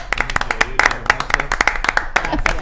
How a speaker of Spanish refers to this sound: Para, un aplauso para todos los seguidores que se están uniendo. ¡Bravo!